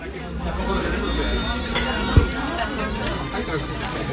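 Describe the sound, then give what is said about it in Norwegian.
Steady outdoor crowd chatter in Paris, France, at around 9:30 in the evening, from many overlapping voices, a dense murmur of people talking with no single voice standing out, and one brief thump partway through. “Det du hører her er lyden av Paris ca.”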